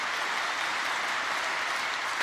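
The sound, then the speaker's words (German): Sustained applause from a large crowd for the Chancellor, lasting minutes, a dense, steady wash of clapping hands that fills the whole stretch without pause, with no voices rising above it. “Applaus für den Kanzler, yeah. minutenlang.”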